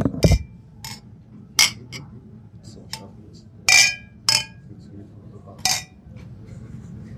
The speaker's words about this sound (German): Irgendjemand hat doppelt angestoßen. Nur für die, die mitzählen.